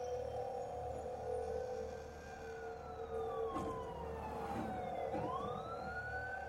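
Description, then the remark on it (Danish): Wailing sirens of police and ambulances arriving at Rødovre station in Denmark rise and fall in long overlapping sweeps over a steady low rumble of traffic, sounding continuous, with no one speaking. “Kniven sad der stadig, da politi og hylende ambulancer ankom få minutter efter.”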